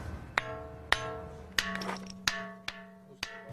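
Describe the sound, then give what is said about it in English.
A hammer taps a marble block six times at a steady, unhurried pace, testing it for a hidden vein before buying; each strike rings out with a clear, bell-like tone that lingers and fades between blows. “Now it sounds as a bell.”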